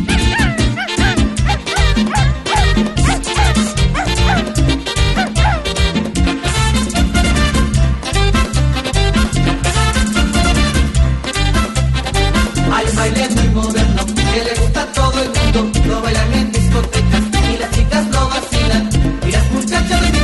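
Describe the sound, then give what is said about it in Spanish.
A loud, upbeat dance song from the late 1980s and early 1990s, made for a choreographed dance, with a driving, steady beat and dense instrumentation playing continuously and playful dog-like barking and yipping sounds woven into the music. “Música con coreografía de finales de los 80s y principios de los noventas.”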